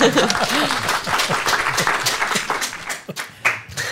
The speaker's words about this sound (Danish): Kom så, klap lidt